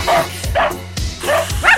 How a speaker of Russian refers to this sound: Это собаки? Кто собаки, наверное, видимо, да.